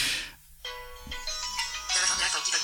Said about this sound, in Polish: Dzwoni do nas telefon. No i najprostszy sposób odebrania tegoż połączenia to jest naciśnięcie klawisza home, żeby nie było, że ja tutaj szerzę jakąś propagandę.